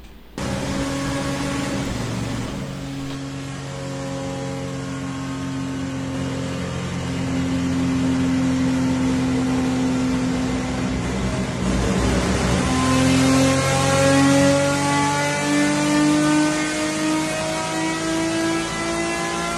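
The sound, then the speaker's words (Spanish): A TC race car engine at the autódromo in Toay, La Pampa province, roars steadily with a loud, buzzing harmonic drone, then revs up in the final seconds as its pitch climbs. No one speaks. “El rolo siempre es bonito de ver, pero sobre todo, si nos estás escuchando por Campeones Radio, justamente de oír el rolo de un motor.”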